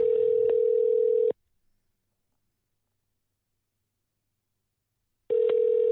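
A phone call rings out unanswered: two steady electronic ringback tones, one at the start and one at the end, separated by about four seconds of silence, with no voices.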